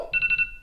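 An alarm clock ringtone goes off in a quick run of four electronic bursts, a bright warbling tone that pulses rapidly then cuts out abruptly, clear with no one speaking.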